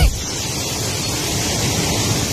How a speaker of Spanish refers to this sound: ¿Escuchaste tormentón de agua? ¿Estás ah. escuchando?